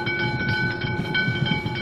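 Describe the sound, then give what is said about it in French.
A tram bell dings with a steady metallic tone as a tram arrives in Rennes, over the low rumble of the rail vehicle rolling close by, fairly loud, with no voices. “À deux pas, un ding-ding familier marque l'arrivée d'un tramway.”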